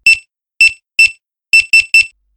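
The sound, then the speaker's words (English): A sharp, high-pitched electronic checkout till beep at an Asda supermarket in England repeats six times, in two groups of three with short gaps, each tone brief and bright with no voices present. “And for nine hours a day, I had to listen to this noise.”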